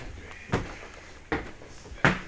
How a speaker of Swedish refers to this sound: så att nu går jag upp för trappan här in i huset en gammal trätrapp